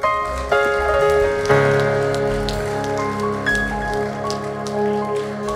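An audience applauds steadily over upbeat music with sustained chords, the clapping forming a continuous crackling wash at moderate loudness from start to finish.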